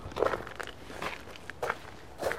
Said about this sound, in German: Gut, dann gehen wir mal ein paar Schritte